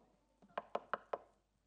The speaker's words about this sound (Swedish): Efter några veckor så var det någon som knackade på